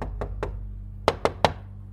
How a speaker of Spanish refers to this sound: Se acercó a la puerta más cercana y golpeó tres veces la madera con los nudillos.